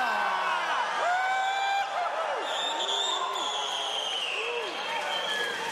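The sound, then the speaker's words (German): A crowd cheers and whoops continuously, with rising and falling shouted voices overlapping in a loud, sustained burst of excitement. “Leute jubeln darüber.”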